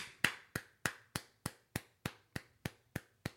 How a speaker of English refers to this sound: Clapping for you for that, bro.